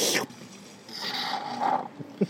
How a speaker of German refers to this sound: Oh, das ist ein ganz neues Geräusch. Das fällt unter Schlürf.